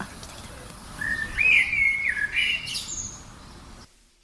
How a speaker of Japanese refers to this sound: もう一回もう一回小鳥から行こうかもう一回もう一回小鳥から行こう